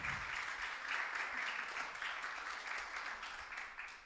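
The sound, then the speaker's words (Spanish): A church audience applauds Christ steadily, a dense, even wash of many hands clapping at once, sustained for several seconds without a break and with no one speaking over it. “Un aplauso a Cristo porque Él ha sido bueno y Él es poderoso.”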